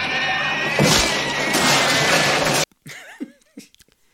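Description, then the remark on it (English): A movie creature makes loud, harsh pig-like squealing for a couple of seconds, then abruptly drops to a few shorter, quieter squeals and grunts with pitch-bending wails. “It, you know, the noise of it sloshing around should be kind of enough, but they they made it have pig noises.”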